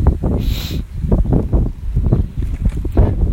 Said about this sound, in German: Ähm, das ist ein bisschen windig, die Qualität könnte wahrscheinlich ein bisschen ruppig sein.